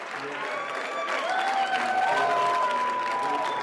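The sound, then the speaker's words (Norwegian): A large crowd cheers wildly with sustained applause, loud and continuous throughout, with shouts and whoops rising above the clapping, as results of a referendum on secession came in during the night. “Vill jubel etter hvert som resultatene kom inn.”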